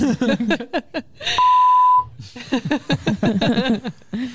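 A single steady censorship bleep, a loud pure tone lasting under a second, covers a swear word in the middle of quick Italian conversational speech, which resumes right after it.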